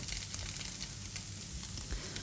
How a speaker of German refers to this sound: Das Wasser kocht. Große Freude, das Wasser kocht.